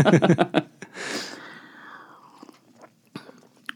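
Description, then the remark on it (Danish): Crunchy biting and chewing of food, with a quick burst of bites at the start followed by a brief rustle and scattered smaller chewing clicks. “Jeg læste et eller andet sted, der er en, der har klaget over, at vi spiser i podcasten.”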